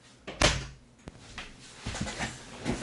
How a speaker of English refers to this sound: I'm pretty sure if you open the door, he will not even uh, get out. yeah. Um, I'm closing the door now again.